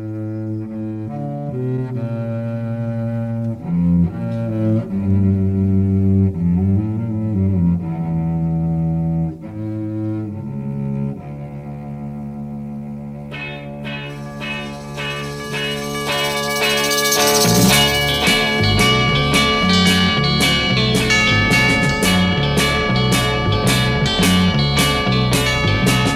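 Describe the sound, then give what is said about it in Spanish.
A 1967 song with an early ecological theme plays loud, opening with sustained, ringing chords before drums and bright cymbals join halfway through, building into a fuller, rhythmic band sound. “el tema … y …, que era como uno de los primeros temas ecológicos”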